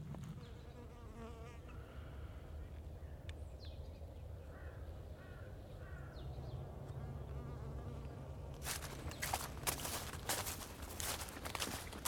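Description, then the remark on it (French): A continuous low drone of many honeybees of an Eastern European breed buzzing, with a few crow caws and a stretch of loud crunching rustles toward the end. “Donc c'est pas une abeille d'ici. C'est une abeille euh, d'Europe de l'Est.”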